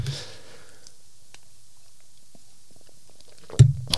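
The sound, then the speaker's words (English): A quick slurp of hot chai tea after a few seconds of near silence, a brief wet sucking burst right at the end. “a live slurp of some nice uh, chai tea.”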